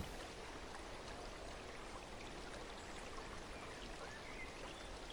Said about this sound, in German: Leise plätschert das Wasser über glatte Steine, bildet kleine Strudel, die das Sonnenlicht einfangen und in glitzernden Reflexen hypnotisch tanzen lassen.